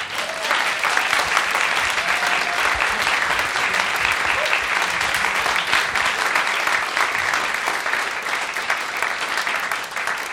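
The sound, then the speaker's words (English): Sustained, enthusiastic applause from a large audience welcoming composer Andrew Norman to the stage at a Meet the Composer event, a dense wash of clapping holding steady for about ten seconds without any speech. “Let us welcome Andrew Norman to the stage.”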